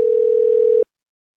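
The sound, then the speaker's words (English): A steady telephone ringing tone on an unanswered phone call, one loud burst that holds a single even pitch for under a second, then cuts off abruptly into silence. No one speaks. “The guy's not fucking picking up his phone.”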